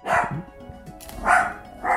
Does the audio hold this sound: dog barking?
yes